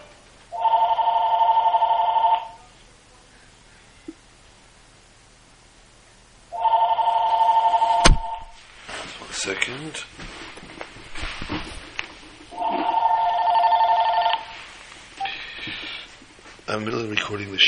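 A telephone rings in three long, evenly spaced bursts, its warbling bell clear, with some clattering and muffled background noise in the gaps between rings.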